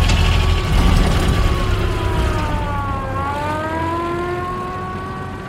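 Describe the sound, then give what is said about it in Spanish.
A car engine hums steadily, its pitch sliding down and then rising again as the car turns around before the engine is switched off, with a dense mechanical rumble underneath and no voices. “Una patrulla. Da la vuelta aquí. Apaga el motor.”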